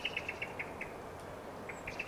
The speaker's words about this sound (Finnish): Musta rastas se on tuossa. Niin. Rummon takana tuossa. Kovasti on juttu. On kyllä.